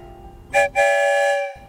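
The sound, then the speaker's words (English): A train whistle sounds two times as the train leaves the station, a short blast followed by a longer, sustained one with a bright, harmonic tone, over faint rumbling background. “Two whistles?”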